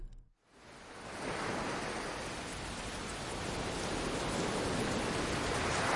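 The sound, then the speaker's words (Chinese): Rain falling over the sea at night: after a brief hush, a dense, steady hiss of rainfall swells up and holds, loud and even, with no voices. “金望着夜色下的大海，陷入沉思的时候，就像天气预报所说的那样，开始下雨了。”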